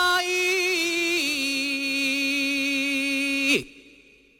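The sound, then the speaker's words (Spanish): A lone young male voice holds a long, ornamented sung cry in flamenco saeta style, wavering slightly before settling, then breaks off sharply into quiet after a few seconds. “Vamos a escuchar la saeta”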